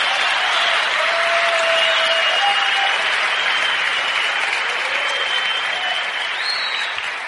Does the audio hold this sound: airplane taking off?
no